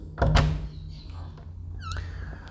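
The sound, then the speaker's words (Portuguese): A door in a house slams shut with a single loud, heavy thud near the start, followed by a low rumbling hum and a few faint squeaks and rattles. “assim como eu andando pela casa, batendo portas, mexendo em coisas, acendendo cigarros, esse tipo de, de baboseira.”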